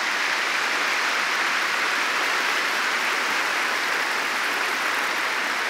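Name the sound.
warm applause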